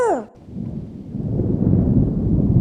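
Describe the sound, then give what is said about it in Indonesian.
A brief falling voice-like tone gives way to a deep, rising rumble of thunder blended with steady rain, loud and continuous, swelling toward the end. “sejak tadi awan mendung sudah menyelimuti seluruh hutan. Segera mereka berdua bergegas menuju bawah pohon yang besar”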